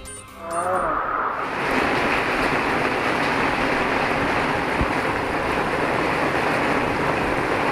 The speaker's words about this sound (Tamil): பெங்களூரு நகரில் நள்ளிரவில் இடைவிடாது கொட்டி தீர்த்தது மழை சாலைகளில் பெருக்கெடுத்து ஓடிய மழைநீர் வீடுகளுக்குள் புகுந்ததால் அவதி